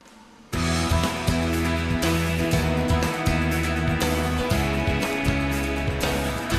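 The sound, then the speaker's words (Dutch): A full band bursts in after a brief quiet moment, driving and energetic with steady drums, bass and bright sustained chords in a big worship-style sound, loud, with no talking. “hier gaan we wat meer weer naar die worship sound die eh, later van … ook weer terugkomt”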